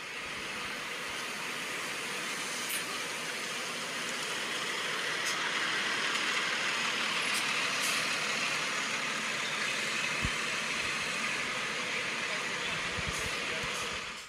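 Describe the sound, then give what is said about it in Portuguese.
The Inter team bus engine drones steadily as the bus arrives at Beira-Rio stadium, a dense, constant rumble at moderate volume, with indistinct voices and the murmur of about 50 fans mixed in underneath. “É só o barulho do ônibus.”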